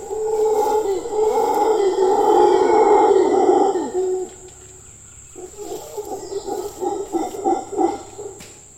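Howler monkeys roar in a loud, sustained, rumbling chorus for about four seconds, then after a brief lull break into a rhythmic series of pulsing, grunting howls.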